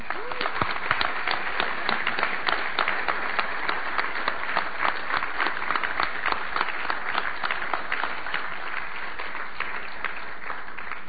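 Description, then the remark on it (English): An audience applauding to give the Lord a clap, a steady wash of many hands clapping that holds at an even, fairly loud level for about eleven seconds, with no one speaking over it. “Well, let's, let's just give the Lord a clap here.”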